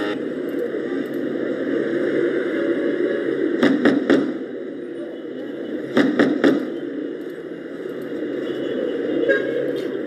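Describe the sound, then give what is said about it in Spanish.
A motorcycle engine rumbles steadily as it parks in front of a house door, broken by two short clusters of sharp thuds, footsteps approaching the door, about two seconds apart. No one speaks. “Se escucha la motocicleta parquear delante de la puerta y pasos acercándose a la misma.”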